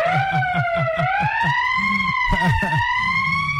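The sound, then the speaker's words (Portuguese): A loud siren sound effect, played in a studio, wails steadily throughout, its pitch gliding slowly upward, while a voice chatters and laughs in short rhythmic bursts underneath. “manda o gordinho botar aquela sirene pro cara aí, a sirene.”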